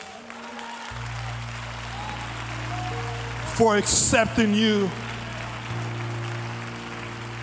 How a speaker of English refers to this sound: In fact, someone ought to give God your best hand of praise